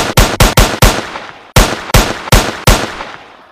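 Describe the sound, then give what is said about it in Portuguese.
Loud gunshots in a video game ring out in two quick bursts of four, each sharp crack trailing off into a short echoing decay, with no voices alongside. “Quer um tiro certeiro, ó?”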